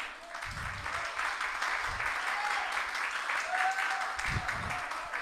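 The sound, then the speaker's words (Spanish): An audience applauds steadily, a dense wash of many hands clapping at an even, sustained loudness, with scattered voices and a few brief cheers rising through it. “Y cuando el Espíritu descienda, apláudele si le va a aplaudir.”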